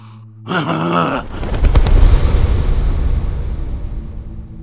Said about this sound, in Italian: Dopo aver udito il forte battito di ali, Lorenzo si accasciò sulla seggiola